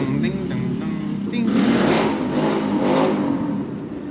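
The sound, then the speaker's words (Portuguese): A loud engine revs and roars, its droning growl swelling in intensity partway through and holding strong, with a rough, noisy edge throughout. “Os animal estourando o motor.”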